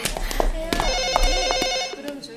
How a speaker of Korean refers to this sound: 전화벨이 울리고 있었다.